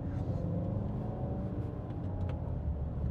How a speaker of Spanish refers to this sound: No sé, perdonar, pero estaba oyendo aquí un, ruido como de una moto o algo, no la veía. O no, es un coche, madre mía, qué bruto.